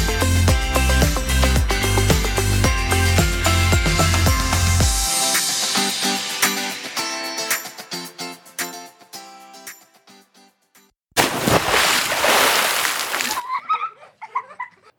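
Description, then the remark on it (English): Upbeat music plays and fades out, then a single loud water splash bursts in for about two seconds before trailing off into faint bubbling. “Ready, set, splash.”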